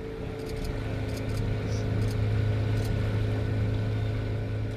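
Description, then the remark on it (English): A boat engine drones steadily on the water as boats pull booms into place to capture spilled oil before it reaches the shore, a continuous low hum with faint higher clicks and splashes, holding at a moderate, even level throughout with no one speaking. “On the water, boats pull the booms into place to capture the oil and prevent it from reaching the shore.”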